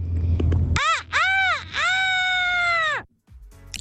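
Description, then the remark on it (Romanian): A person imitates a rooster crowing in a yawning, stretched-out voice: two short arching cries, then one long sustained call. It is loud, after a brief low rumble. “Un fel de cocoș, cred. Cocoș, cred că. Un cocoș care și căsca în același timp.”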